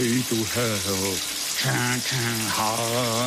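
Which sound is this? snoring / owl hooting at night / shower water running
shower water running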